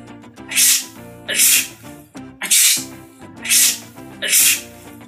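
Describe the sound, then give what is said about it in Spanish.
About five sharp, hissing sneezes burst out one after another at a quick, steady pace, loud, over a faint tonal background: a woman and her friends sneezing all at once after pepper was sprayed at them from an insecticide sprayer. “Estornudó la mujercita. Estornudaron sus amigas. Y venga a estornudar todas a la vez.”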